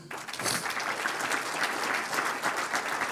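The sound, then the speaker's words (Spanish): An audience applauds the Lord steadily, many hands clapping in a dense, continuous patter that holds at an even loudness throughout, with no voices standing out. “Un aplauso al Señor.”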